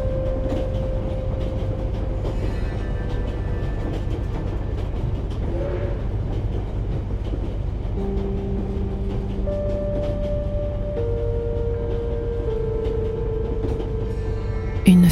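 A train on a long-distance journey rolls steadily along rails, a loud continuous low rumble with faint clatter and occasional sustained tonal hums and whines over the top, with no voices.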